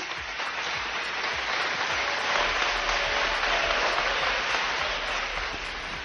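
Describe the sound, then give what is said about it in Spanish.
Sustained applause from the parliamentary opposition during Díaz Ayuso's speech, at her pledge of zero tolerance for corruption: a dense, steady wash of clapping that holds at a constant level for several seconds with no voices rising above it. “Tolerancia cero para la corrupción, momento que ha aprovechado la oposición para aplaudir como estábamos escuchando.”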